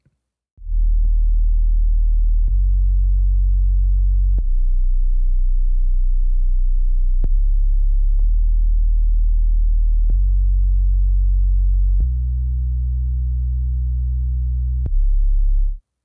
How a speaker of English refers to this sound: For this tune, there's some really, really deep subs in the build, I'll play them, but unless you've got a subwoofer or some decent headphones, you're not even going to catch the lowest note.